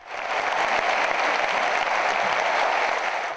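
Sustained standing ovation from a large audience for pianists a pianist and a pianist at the 20th Antalya International Piano Festival, Antalya Culture Center, Turkey: a dense, steady wash of many hands clapping at once, loud and unbroken from start to finish, with no voices standing out.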